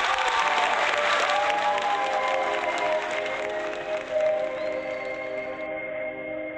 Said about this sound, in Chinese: 来，掌声欢迎。